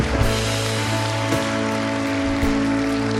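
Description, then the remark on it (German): An audience applauds the welcome, ministry, cleaning and office teams in a dense, steady wash of clapping that holds for a few seconds, with a low, constant hum beneath it and no voices. “Kommt nochmal einen fetten Applaus.”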